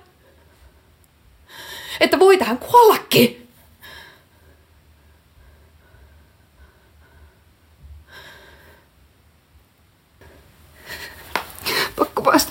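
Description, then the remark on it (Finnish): A person speaks briefly, then after a quiet pause comes a series of harsh, breathy gasps near the end, fairly loud, like someone struggling for air. “Mä en saa happea.”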